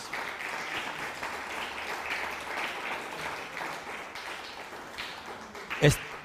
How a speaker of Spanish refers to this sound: Raimundo Mora, un fuerte aplauso Estados Unidos.